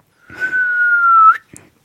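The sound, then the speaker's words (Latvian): A person whistles one steady, sustained note for about a second, ending with a brief upward flick, followed by a short soft noise. Clear, with no talking. “Nu, bet, piemēram, svilpot jūs protat? Jā. Pasvilpo.”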